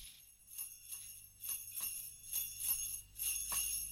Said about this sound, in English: Not often you see hear sleigh bells on a non-Christmas song.